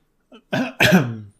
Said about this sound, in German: Und ähm, das war ein sehr ungünstiger Hustenanfall gerade, muss man sagen.